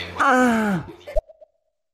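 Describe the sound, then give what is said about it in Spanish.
A single drawn-out, relaxed vocal cry with a gently falling pitch, more like a long sigh than a shriek, trailing off into a few soft, fading sounds and silence. “Este grito fue más, calmado, creo yo, un grito calmo, como de relajación fue.”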